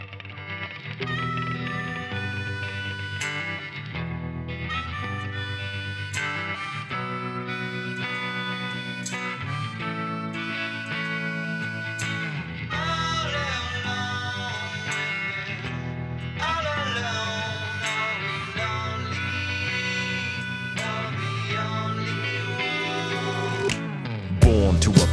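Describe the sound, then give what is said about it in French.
A song mixing blues, hip-hop, rock and funk plays steadily at full volume on Radio Phoenix, with distorted guitar-like tones over a heavy bass line and a regular beat punctuated by sharp percussive hits. “une musique mêlant blues, hip-hop, rock et même funk.”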